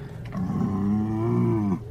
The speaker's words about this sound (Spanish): Una noche mientras leía, volví a escuchar aquel ruido. El golpe de las patas contra el piso. Otra vez, pensé. No sé si fue mi propia sugestión, pero esta vez pude distinguir el mugido de los animales.